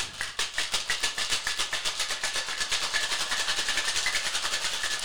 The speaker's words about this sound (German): Und jetzt shaken wir das Ganze kräftig 10 bis 15 Sekunden lang.